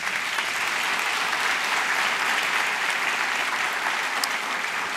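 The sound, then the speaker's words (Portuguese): A church audience applauds God steadily, a dense, continuous wash of clapping that holds at an even loudness for the full five seconds with no voices standing out. “Vamos aplaudir ao nosso Deus?”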